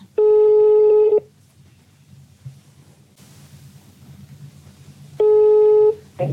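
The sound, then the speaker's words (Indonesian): A telephone ringback tone from a call placed to an Indonesian film actor sounds twice, each a steady buzzy tone lasting about a second, separated by a four-second pause filled with faint low background noise. “Kita telepon langsung aja ya.”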